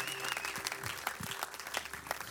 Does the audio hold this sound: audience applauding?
yes